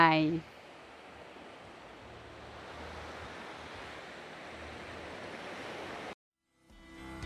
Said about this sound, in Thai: ก็ให้ฟังเสียงคลื่นก่อนไป